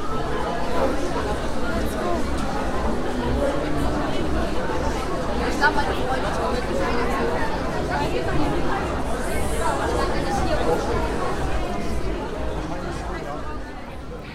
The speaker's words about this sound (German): Über das Mikrofon werde ich in einer späteren Folge mal sprechen, aber ein paar Höreindrücke aus den Messehallen bekommt ihr jetzt schon zwischen den Interviews.